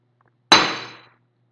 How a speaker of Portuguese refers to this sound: Nossa, quase quebrei a xícara aqui. Tá tudo bem.